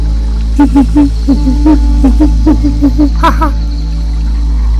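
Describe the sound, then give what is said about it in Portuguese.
A monkey up in a tree in a forest gives a rapid series of hooting calls, about a dozen short pulses in a steady rhythm, ending in a sharper, higher cry before falling quiet. Fairly loud. “Pitulu olhou para cima e viu seu amigo macaco convidando-o para brincar”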